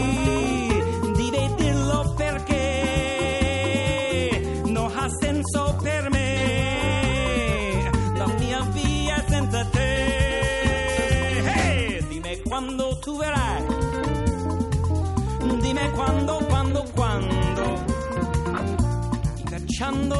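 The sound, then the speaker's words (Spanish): A small lounge band plays in a shabby bingo hall or casino, a steady, dense tune with sustained keyboard or organ chords and a thumping bass line, loud and continuous, the melody sliding and wobbling in a slightly off, cheesy way. “una especie de bingo o casino en el que está tocando una banda llamada …”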